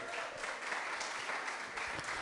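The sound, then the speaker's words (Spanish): An audience applauds the church's sound and multimedia team, a dense, steady clatter of many hands clapping at once that holds at an even level throughout, with no voices standing out over it. “Un aplauso para ellos porque trabajan mucho.”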